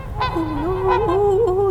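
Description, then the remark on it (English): A voice imitates honking, squawking birds like geese, heard way off in the distance in the sky, with a short call followed by one long, wavering nasal cry held at a steady, fairly loud level. “you know, the squawking way off in the distance.”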